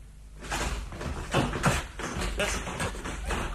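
A door handle is jiggled and rattled against a locked bedroom door as someone tries to open it, producing a quick series of clattering knocks and thuds that continue for several seconds, fairly loud.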